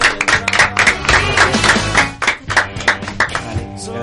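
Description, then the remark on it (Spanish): A burst of applause from a small group for the guests Autos Robados on a radio program in Quilmes, with dense overlapping hand claps filling the whole stretch, fairly loud and steady without voices over it. “Sí, un aplauso, por favor.”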